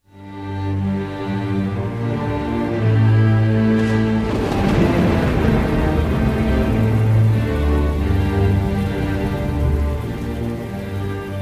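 Steady rain patters throughout while a deep, rumbling thunderclap swells in around four seconds and rolls on, loud and sustained, over a low musical drone. No one speaks.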